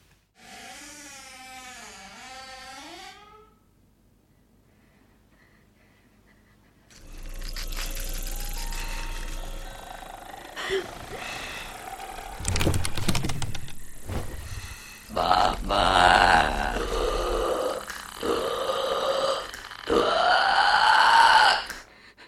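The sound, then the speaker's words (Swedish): A brief high voice is followed by a film monster's deep, guttural croaking, heard in the room rather than over a telephone as it hangs like an animal from the ceiling above a woman in bed, rasping and clicking in several loud bursts that grow harsher toward the end. “så hör vi ju Babadocken nu eh, inte i telefon, utan i rummet”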